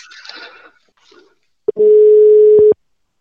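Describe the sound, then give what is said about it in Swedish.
After some faint rustling and a click, a single loud, steady telephone ringing tone sounds for about a second while a phone call is being placed, then cuts off with a click. “Vi ringer upp”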